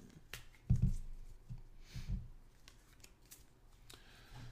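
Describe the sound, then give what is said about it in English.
A deck of oracle cards being shuffled by hand before a reading, with a few soft thumps and a run of quiet crisp riffling clicks and rustles, and no one talking. “let's do the oracle card reading. Oh, I'm going to shuffle.”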